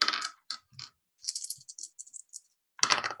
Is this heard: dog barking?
no